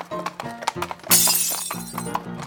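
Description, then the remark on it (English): Glass smashes loudly partway through in a bar, a bright crash with scattering shards, set amid background chatter and the clop of a horse's hooves. “You smash one more glass and you're out the door and you're not back for a week.”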